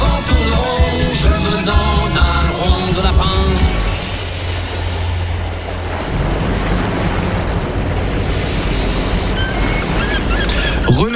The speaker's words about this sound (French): Ah, les mouettes derrière. C'est pas mal ça, hein, C'est pas un bruitage en plus.